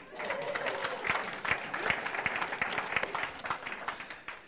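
An audience applauds for several seconds, a dense patter of many hands clapping at a steady level with a few sharper claps standing out, no voices on top.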